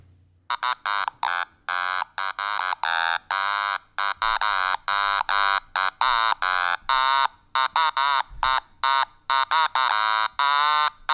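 A catchy pop melody played in choppy, staccato notes with a harsh, buzzy electronic tone, almost alarm-like, pulsing steadily and fairly loud with no voices.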